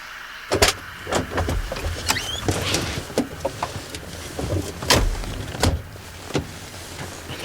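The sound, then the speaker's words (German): Rustling and scraping as hitchhikers climb into a car that is giving them a ride to Obersalau, with a series of sharp knocks and thumps, including car doors, over a low idling rumble. “Können Sie uns mitnehmen nach Obersalau? Ja, gern, steigt ein.”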